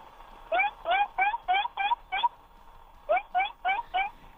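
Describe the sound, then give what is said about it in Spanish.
A voice imitates a baby seal from Reino Aventura chasing its mother, with a rapid run of short, bleating yelps, six in a row, a brief pause, then four more, fairly loud. “Es foca bebé de Reino Aventura persiguiendo a su madre.”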